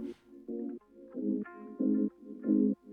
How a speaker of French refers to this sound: On va s'écouter ça tout de suite sur ta captée … de …